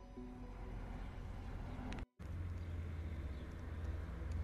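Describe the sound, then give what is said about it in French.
A Transall military transport plane flies over a military base at night, with five military personnel aboard training for night flight: a steady, low propeller drone fills the air overhead, continuous and moderately loud with a faint tonal hum, briefly cutting out midway before resuming. No voices. “Dans le ciel, le bourdonnement familier pour les occupants de cette base d'un avion de type Transal se fait entendre.”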